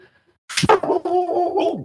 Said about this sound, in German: Das war der Hund. Ja, dein Hund kommt auf Touren, während du das hier machst.